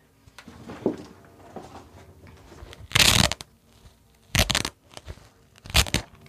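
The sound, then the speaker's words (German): Three loud, rasping rips of a velcro fastener being pulled apart, each lasting under half a second and spaced roughly a second apart, preceded by faint rustling handling noise. No one speaks. “Klettverschluss? Wieso das?”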